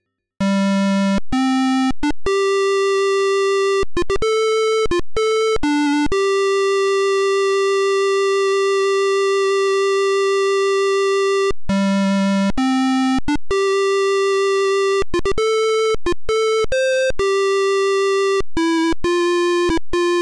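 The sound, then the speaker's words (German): A shrill, buzzy square-wave melody beeps out a game title tune, mixing quick note changes with long sustained tones at steady loudness. No voices, just the harsh single-voice bleeps of a PC speaker. “Adlib, Soundblaster, Roland MT32, das eher unbekannte Thunderboard und sogar der gute alte PC-Speaker wird unterstützt, für den Fall, dass man sein Gehirn ganz speziell hassen sollte. Denn mit dem klingt das Titelthema so.”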